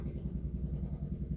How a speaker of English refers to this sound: It's either a machine. Eh? they might be using a machine out there. Ah, sounds like one of those uh, army helicopters hovering above us. I'm sure it is. Maybe the navy or air force is coming in.